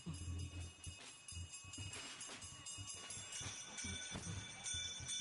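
Two handbells ring continuously in a rapid, irregular clanging, their bright metallic tones overlapping and fairly loud, over a low rumbling background; a bell-ringer carries them at the head of a religious procession, ahead of the guiding cross.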